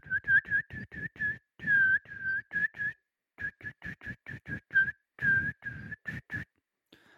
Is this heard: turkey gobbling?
no